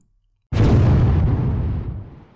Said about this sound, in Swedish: Någon minut senare hörs en explosion.